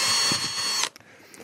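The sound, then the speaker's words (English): A power drill whines steadily for under a second as it bores a hole for a drinking straw through a thin plastic bottle lid, then cuts off abruptly, leaving a few faint clicks and handling noises. “So, I will drill a hole in this lid carefully not putting my hands behind it.”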